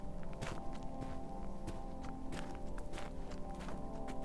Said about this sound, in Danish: På Bispetorv foran Aarhus Teater er der mørkt og koldt og mennesketomt. Og så alligevel ikke. Pludselig kan man høre skridt på vej mod teatrets fortrappe.